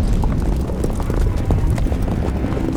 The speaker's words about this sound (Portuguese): são seis cavalos correndo. Um cavalo tem o Bolton, um cavalo não tem ninguém, os outros quatro cavalos têm seis.